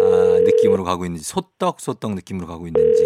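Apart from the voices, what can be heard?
telephone dial tone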